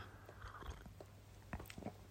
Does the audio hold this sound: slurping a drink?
yes